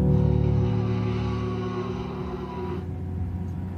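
Steady heavy road traffic noise, a continuous low engine rumble with a droning hum that shifts slightly partway through, fairly loud, with no voices.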